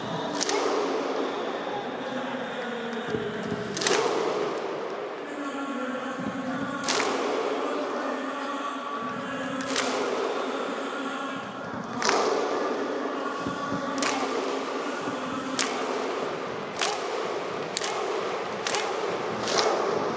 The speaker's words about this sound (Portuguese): é isso aí, o famoso grito de guerra viking.